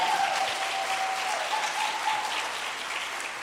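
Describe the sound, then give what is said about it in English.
An audience claps steadily for a few seconds for a first-time dad, a dense, even wash of applause with no voices standing out. “Come on, let's give it up for him.”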